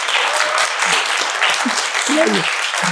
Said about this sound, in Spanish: Pues gracias de todo Al contrario. un aplauso al doctor con mucho gracias.